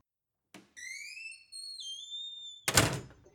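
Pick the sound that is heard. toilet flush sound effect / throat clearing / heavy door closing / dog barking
heavy door closing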